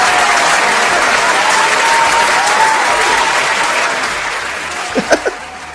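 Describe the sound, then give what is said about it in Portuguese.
Steady, dense applause from an audience fills the whole recording, a loud wash of many hands clapping that slowly thins toward the end, with a few sharper individual claps near the finish. “Palmas, palmas! palmas.”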